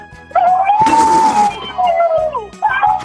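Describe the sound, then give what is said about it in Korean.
A person's voice imitates an elephant trumpeting on Park Myung-soo's radio show: a loud, sustained brassy wail with a raspy burst in the middle, sliding downward, then a short second blast at the end. “코끼리 소리 자신 있습니까?”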